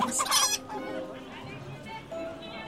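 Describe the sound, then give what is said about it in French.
Several chickens cluck and squawk at a market, a loud burst at the start followed by softer, irregular clucking over a murmur of background voices. “Les badauds montraient plus d'intérêt pour les fruits ou la volaille que pour sa précieuse marchandise.”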